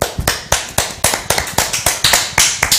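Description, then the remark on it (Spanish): Brief, sparse applause: a dozen or so sharp, bright claps in a loose, uneven rhythm over about three seconds, fairly loud, with no talking. “¿Qué te parece damos un fuerte aplauso?”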